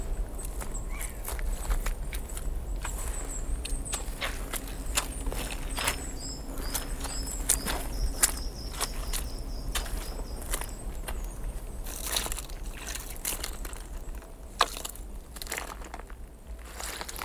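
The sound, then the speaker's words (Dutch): A small songbird sings faintly in the background, thin high chirps and short warbled phrases repeating every few seconds, partly buried under steady crunching footsteps. No one speaks. “Ik heb een klein zangvogeltje in de achtergrond.”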